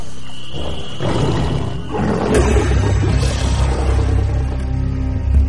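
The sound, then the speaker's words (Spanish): Three Ethiopian lions at a cabin roar in deep, rumbling bursts that swell and overlap, building into a sustained low growl that grows louder toward the end. No one speaks. “En esa oportunidad, tres de aquellos poderosos felinos se acercaron a la cabaña.”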